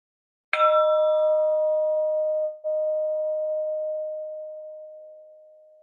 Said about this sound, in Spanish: Y ahora lo que voy a hacer es llevar toda mi atención al sonido de la campana, acompañando al sonido desde que empieza hasta que dejo de percibirlo.